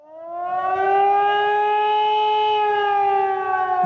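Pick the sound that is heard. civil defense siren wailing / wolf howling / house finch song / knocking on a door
civil defense siren wailing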